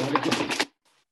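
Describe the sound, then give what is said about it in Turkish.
A cat steps on a computer keyboard: a quick flurry of clattering keys pressed in rapid, uneven succession, then a faint soft tap before silence. “pardon kedi şeyi klavyeydi.”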